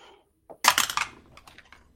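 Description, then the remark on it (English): Dice rolled for initiative clatter onto a hard surface in a quick burst of sharp clicks that bounce and settle into a few fainter taps. No voices are heard. “I rolled a five.”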